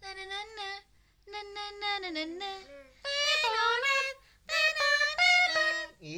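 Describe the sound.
A voice hums a bouncy melody on repeated syllables, imitating a bread vendor's jingle, sung in three short phrases with brief pauses between.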